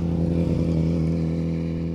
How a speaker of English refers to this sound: sorry about the man on the motorcycle.